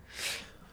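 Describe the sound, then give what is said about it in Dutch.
A single short sneeze, a soft, breathy burst of hiss that swells and fades within a second, with no talking around it. “Gezondheid.”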